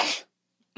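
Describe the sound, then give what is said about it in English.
A sharp sneeze bursts out and cuts off abruptly, followed by a brief silence and then the start of a second breathy burst, like a cough or another sneeze. “bless you.”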